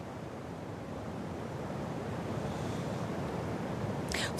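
A steady, full roar of rushing high floodwater on the Vltava river below the Lipno reservoir, flowing through Český Krumlov, Czech Republic, loud and continuous throughout with no voices, ending with a brief sharp rustle.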